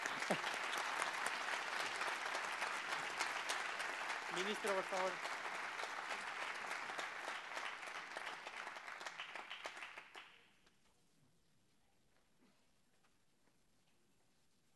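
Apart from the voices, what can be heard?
audience applause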